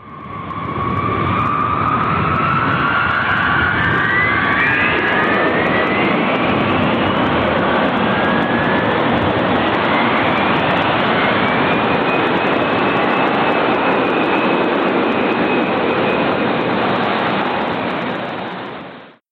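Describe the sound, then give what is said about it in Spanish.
EB-52 bomber jet engines roar steadily and loudly for the whole stretch in the mission El vuelo del viejo perro, a dense rushing drone with high turbine whines that climb in pitch, and no voices. “yo me voy a mi EB-52 a ver si consigo destruir el láser este en la misión El vuelo del viejo perro.”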